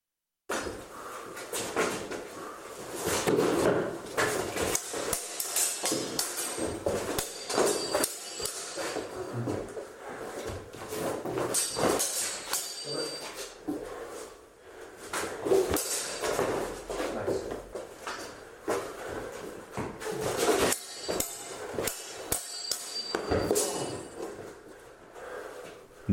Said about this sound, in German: muss man sich einfach nur jedes Mal vorstellen, dass wenn man die Schwerter aufeinander schlagen hört, eine Aktion passiert.